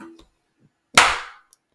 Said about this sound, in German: Der, der Klatscher war einfach perfekt. Der war, der war einfach wow.